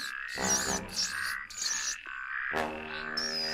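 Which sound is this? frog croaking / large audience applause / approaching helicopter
frog croaking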